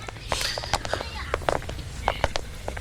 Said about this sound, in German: Bis zur Wohnung des Verwalters waren es nur wenige Schritte.